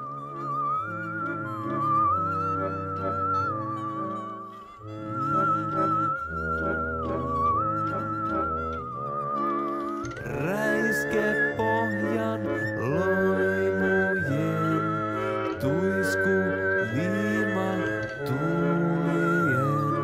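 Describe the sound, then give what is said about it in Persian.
A slow, gentle Finnish lullaby in a lilting three-beat sway, its high melody held over soft sustained accompaniment, growing fuller and richer halfway through, with no talking. “حالا به این لالایی فنلاندی گوش کنین با پایه سه ضربی میتونین تأخیرها رو توی این لالایی تشخیص بدین؟”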